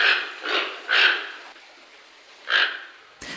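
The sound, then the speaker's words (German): A toucan gives four hoarse, croaking calls, three in quick succession and then one more after a short pause, with no voices. “Das ist ein Tukan. Der beste und schönste Vogel der Welt mit Abstand, finde ich jedenfalls.”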